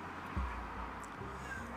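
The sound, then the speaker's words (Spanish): A cat meows quietly in the background, a short faint call followed by softer drawn-out whining over a low hum, with nobody speaking. “Por aquí anda mi gato, por si escuchan maullidos.”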